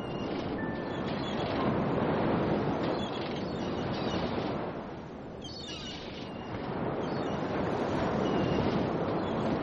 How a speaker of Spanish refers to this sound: Las palabras del mar se entremezclan y estallan cuando se hunde en la tierra el rumor de las olas.